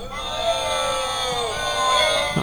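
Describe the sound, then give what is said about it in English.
A studio audience applauds and cheers together, many overlapping voices forming a steady, loud wall of whoops and yells that holds for a few seconds, with applause mixed in underneath. “You hear the applause?”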